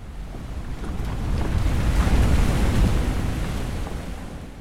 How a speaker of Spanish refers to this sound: Afuera el paisaje era un océano, no demasiado tranquilo, bajo una luna redonda y desmesurada.